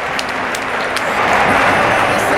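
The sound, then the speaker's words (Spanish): An audience claps steadily, a dense wash of many hands, with a few louder individual claps and faint voices mixed in, applauding a group of participants as they are introduced. “Aplausos nuevamente para todos ellos.”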